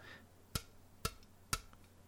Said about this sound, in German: Ich, ich klopf mal einfach.